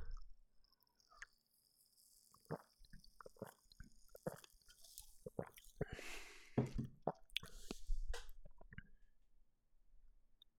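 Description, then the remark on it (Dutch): Someone takes a sip of a strongly cherry-scented drink: soft slurping and wet mouth clicks, a few quiet swallows and small taps, with no talking, over roughly ten seconds. “Ik ga eens een slokje nemen.”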